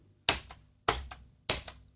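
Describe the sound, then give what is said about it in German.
Three crisp keyboard keystrokes spaced evenly about half a second apart, each a sharp click with a quick softer echo, typing the letters A, U and S to spell the German word "aus", with no talking. “Aus hört sich so an.”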